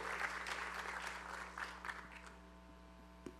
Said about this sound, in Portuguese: Vamos aplaudir ao Senhor pela vida dela.